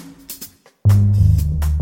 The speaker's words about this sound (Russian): Ударник должен уметь играть не только на барабанах. Он еще должен уметь играть на литаврах